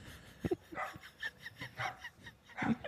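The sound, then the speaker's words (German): A dog named Paul barks repeatedly in short, sharp bursts at an uneven pace, fairly quiet, with no one talking over it. “Paul hat gerade angefangen zu bellen.”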